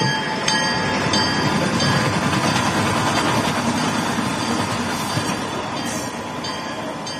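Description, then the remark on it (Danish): A steam train sound effect: a steady, loud rumble of a moving train with clattering and faint high tones, holding at an even level for about seven seconds with no voices. “så er der futtog.”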